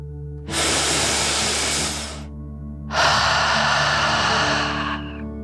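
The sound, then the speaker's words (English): A slow, deep relaxing breath drawn in through the nose, a brief pause, then a long forceful exhale out through the mouth, both breathy, over a faint steady background hum. “Breathe in through your nose, filling up your lungs, and then out through your mouth, imagining you are breathing fire like a dragon.”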